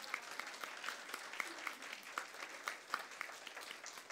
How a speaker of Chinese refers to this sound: 哎，要拍就大声拍，好不好？